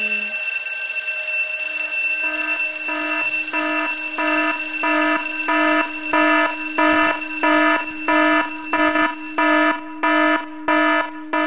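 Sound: alarm clock ringing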